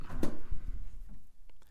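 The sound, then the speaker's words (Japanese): A heavy soundproof studio door clunks open with a sharp latch snap, followed by a couple of muffled low thuds and faint clicks as it swings shut, with no talking. “これがね僕が今もう一回いこうかな僕が今喋ってるスタジオの扉の音もう一回聞いてもらおうかなしっかりこの防音に、ね、なってる”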